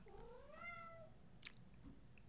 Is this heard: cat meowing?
yes